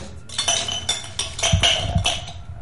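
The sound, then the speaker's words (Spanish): Ice cubes clink and rattle against glass in a quick, irregular series of bright taps, with a couple of heavier knocks near the end, as an ice cube is put in a cocktail glass and a cocktail shaker to chill them before making a cocktail. “Ponemos un cubito de hielo, un poquito de agua. En este caso no hemos traído agua, pero se va a enfriar igual. Y enfriamos la coctelera también.”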